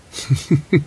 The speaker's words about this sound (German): das ist mein Handy. Das furzt. Das Im Moment atmet es mehr so Darth das Vader. Das furzende Handy, das hatten wir doch schon mal.